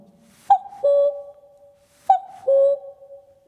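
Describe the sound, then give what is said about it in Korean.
A person imitates a cuckoo call twice, each a clear two-note hoot with the second note lower and held longer, repeated after a short pause, loud. “뻐꾸기로 시작을 할게요.”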